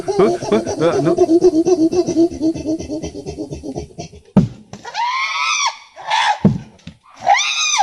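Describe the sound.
A person imitates West African chimpanzees squealing rhythmically as they stand holding a stone by a hollow tree: a rapid run of panting, pulsed vocal bursts, then three or four loud, high-pitched arching squeals.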